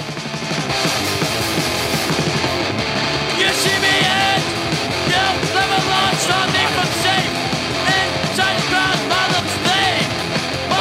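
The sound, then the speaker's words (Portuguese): A loud, dense burst of fast hardcore punk plays throughout, with driving distorted guitars, rapid pounding drums and shouted vocals at a relentless pace. “E tem um hardcore que realmente a gente faz barulho, Posso a gente toca rápido.”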